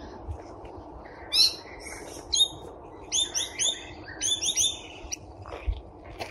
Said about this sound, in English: I'm currently working on the bat conservation area and here we can hear some noise of bats.